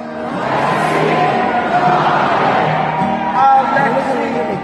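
A large crowd chants together in loud, sustained unison, voices rising and falling in a steady rhythm, with scattered shouts and whoops mixed into the roar.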